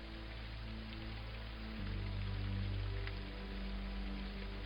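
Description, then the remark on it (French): Heavy rain pours steadily, a dense, continuous hiss with no pauses, layered over a low sustained droning tone that shifts pitch partway through. “Le voir ainsi au milieu de l'eau, les cheveux et sa toche blanche trempés par la pluie battante, mais toujours de marbre, comme figé par sa méditation mystérieuse.”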